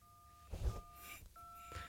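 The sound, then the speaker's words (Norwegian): Three steady beeping tones from a phone keypad being dialed, each lasting about half a second, with soft thumps of key presses between them. The tones are fairly quiet, with no talking. “Kan ikke hver tast ved sin egen uh, unike lyd, holdt på å si?”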